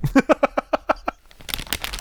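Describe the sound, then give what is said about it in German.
A quick run of rhythmic voiced bursts, like laughter, gives way to crisp crinkling of a chips bag, a dense crackly rustle lasting under a second. “okay, gutes, gutes Knistern, warte, ich hole meinen auch. Hab noch ein bisschen Alufolie vom letzten Döner.”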